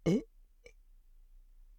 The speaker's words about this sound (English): Excuse me, I had to burp there.